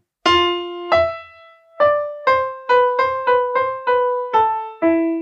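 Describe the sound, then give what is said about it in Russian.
A solo violin melody of about ten distinct notes. It opens on the same low note as a guitar melody and leaps upward, then moves in steady, evenly spaced steps at a moderate pace, with no voices. “Только у гитары это звучит так, а у скрипки начинается с той же ноты, но идет сильнее наверх.”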